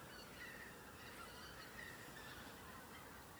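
A flock of geese chatters faintly in the background at night under a starry sky, soft overlapping honks and calls drifting over a steady hiss of outdoor background noise, with no one speaking.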